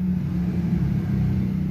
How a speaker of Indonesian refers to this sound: tidak enak dengar kayak suara lalu lintas dan sebagainya.